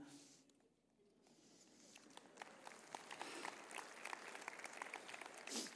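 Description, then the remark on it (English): A crowd breaks into applause, starting softly and swelling into dense, steady clapping from many hands that fills the space for several seconds. “I wouldn't applaud for them, but so I got four kids.”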